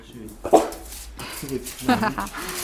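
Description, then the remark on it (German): A dog, Edgar, lets out two short bursts, a sharp bark followed a second later by a higher, whining whimper, over a low, steady background, in a home office in an apartment. “Und mit dabei ist dann auch Hund Edgar.”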